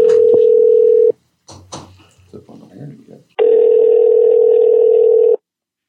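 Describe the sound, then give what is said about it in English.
A steady landline dial tone hums for about a second, gives way to a burst of clicks and handling noise as a number is dialed, then a long steady tone returns. “This is a landline. Should sound great.”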